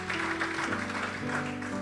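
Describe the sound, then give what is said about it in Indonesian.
An audience claps steadily together as applause for Jesus, a dense, even patter of many hands, with sustained organ-like keyboard tones held underneath. “Oke, yang paham saja tepuk tangan bagi Tuhan Yesus.”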